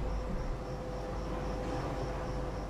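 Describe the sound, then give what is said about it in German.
A single train car rolls into a station with a steady, heavy low rumble and a faint sustained whine, holding an even loudness throughout with no voices. “hier kommt jetzt auch mal ein Zug”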